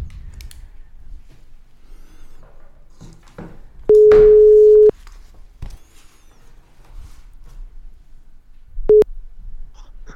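A phone ringback tone plays while a call connects: one steady one-second beep, a long pause, then a brief second beep that cuts off. Faint low background rumble, no voices.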